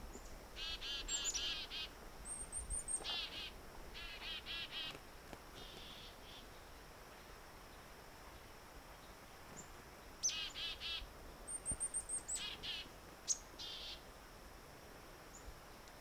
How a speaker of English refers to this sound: downy woodpecker